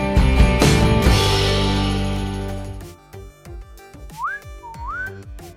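A few seconds of loud, full music give way to two short, rising whistled phrases, clear, over a light rhythmic backing.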